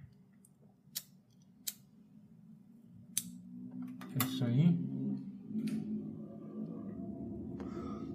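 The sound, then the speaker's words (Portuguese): A low, steady exhaust fan hums throughout while a lighter clicks sharply several times before catching, lighting a cigarette; a voice briefly says a couple of words partway through. “Barulho do exaustor acendendo um cigarro e agora sim podemos começar.”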